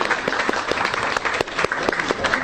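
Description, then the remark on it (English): An audience applauds steadily for a panel, a dense wash of many hands clapping at once, fairly loud, sustained without pause and with no talking over it. “But you please thank help me in thanking our panel today”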